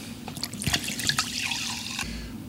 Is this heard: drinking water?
yes